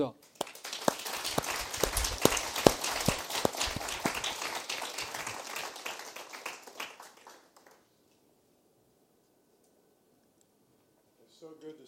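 A church audience applauds in welcome: a dense wash of many hands clapping, steady and fairly loud for about seven seconds, then thinning out and fading into quiet.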